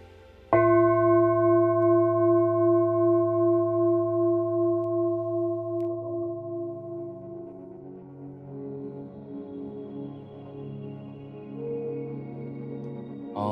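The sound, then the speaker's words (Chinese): A singing bowl is struck once at the close of an online meditation session and rings with a deep, steady hum and bright overtones, its tone pulsing gently as it slowly fades, later swelling slightly as it keeps resonating. No one speaks. “接下来，我们透过颂钵的声音，我们慢慢的回到现在的时空能量场。”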